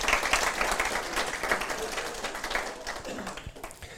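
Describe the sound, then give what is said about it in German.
An audience applauds steadily, many hands clapping in a dense, crackling wash that fades slightly toward the end, with faint voices underneath. “Ja, gebt mal einen Applaus.”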